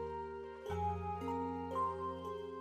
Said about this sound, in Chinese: 铃声一响，顿时人影错杂，奔往不同的方向。